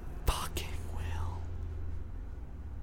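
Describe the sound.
Someone whispers into a microphone, a few breathy, hissing bursts of unvoiced speech in the first second and a half, then only a low steady hum remains.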